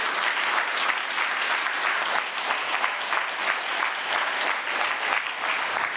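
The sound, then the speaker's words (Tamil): An audience applauds steadily for the full six seconds, a dense, even wash of many hands clapping at a constant loud level with no voices heard over it. “நல்லா கைதட்டுங்க இது கைதட்ட வேண்டிய குறிப்பு”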